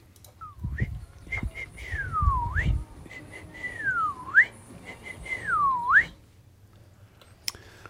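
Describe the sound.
A person whistles an imitation of a bird call heard in early May in Västanfjärd, repeating the same swooping phrase three times: each note glides down then flicks sharply upward. The whistling is clear, with low rumbling noise early on.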